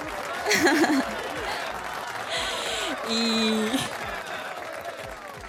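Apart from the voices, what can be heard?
applause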